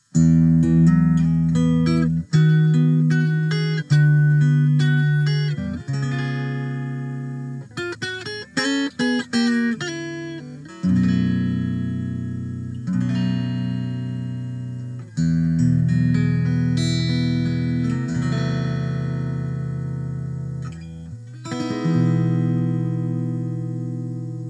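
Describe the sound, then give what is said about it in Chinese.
A short standalone guitar lick, not from any song, plays alone, with clear sustained notes and a quick flurry of rapid picked phrases in the middle before settling into held, ringing tones. No one speaks. “哪首都不是，这就是一段独立的乐句。那咱们一般呢就管这种短小的乐句叫做 lick，l i c k，就跟那个舔一口的舔呢是一样的单词。”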